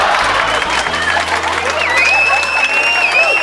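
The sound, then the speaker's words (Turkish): A crowd applauds steadily, dense clapping mixed with cheering and a few whistles rising above it, sustained throughout without pause. “Ben şu anda sizin yerinizde olsam alkışlıyordum.”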